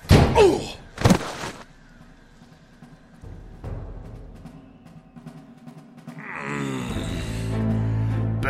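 Two heavy thuds of a man being slammed into a wall by a robot security guard, one right after the other, then a low lingering rumble and a drawn-out pained groan.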